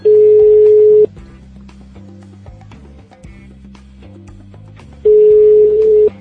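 A steady telephone ringback tone sounds twice, about four seconds apart, loud, with a low hum between the rings as a call to a listener goes through.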